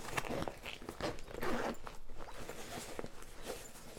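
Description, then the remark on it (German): A bag compartment zipper is pulled open in a series of short, scratchy rasping strokes, with light rustling and handling noise between pulls and no one talking. “Also, keine Ahnung, wie viele Reißverschlüsse hier drin sind, wie viele Fächer.”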